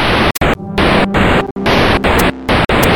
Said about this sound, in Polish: Powiedzmy, jakiś tam żółty ekran, zielony ekran, jakieś piksele się rozmazują, i to jest jeszcze tak podkręcone takim elektronicznym, takim bzyknięciem, takim buchnięciem.